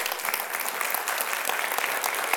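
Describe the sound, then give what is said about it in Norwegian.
An audience applauds a woman who sings in Gospel Explosion, many hands clapping in a dense, continuous patter with no voices above it. The clapping holds at an even, fairly loud level throughout. “Gi henne en applaus.”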